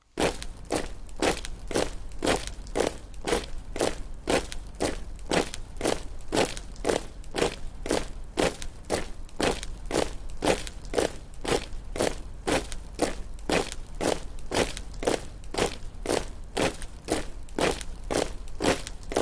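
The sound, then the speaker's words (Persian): Measured, slow footsteps crunch over gravel in a steady, even rhythm, each step sharp, continuing unbroken for the whole stretch with no voices. “قدم آهسته می شمارم”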